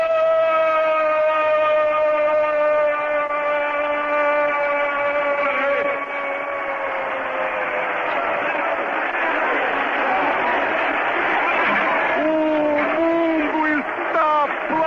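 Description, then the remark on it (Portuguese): The crowd at the Maracanã stadium roars and cheers for Pelé's thousandth goal in a steady, loud wash of noise, while a long, drawn-out shouted voice rings over it at the start. “aplaudindo, personificado no público que toma as dependências do Maracanã.”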